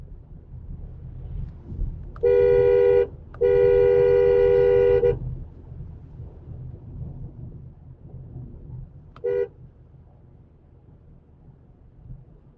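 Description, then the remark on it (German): A car horn honks three times: a short blast, a longer sustained one, then after a pause a brief toot, all loud over a low rumbling background with no talking. “Und es hupt.”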